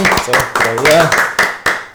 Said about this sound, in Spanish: Señoras y señores, un fuerte aplauso.